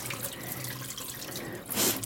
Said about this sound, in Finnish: Noin, nyt on kulho täynnä kylmää vettä ja sit kvinoa sinne ja vähän sekoittelen sitä, niin hyvin jäähtyy.